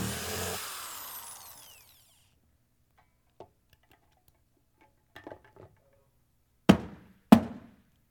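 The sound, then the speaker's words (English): A power drill whirs loudly while drilling holes in a box and winds down over a couple of seconds, followed by a few faint clicks and then two sharp, heavy knocks. “Someone has hurt you, and I need a new drill, y'all and left scars.”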